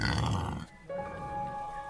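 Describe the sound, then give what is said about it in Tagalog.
A jet-black pig beside a hand water pump grunts in a low, rough burst for under a second, then the grunting stops and a steady, sustained hum-like tone carries on to the end. “Pabalik na daw sila sa bahay nun nang bigla silang makarinig ng huni ng baboy.”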